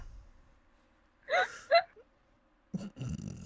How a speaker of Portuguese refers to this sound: É meu filho, é meu gato. Eu tenho isso aqui em casa, viu?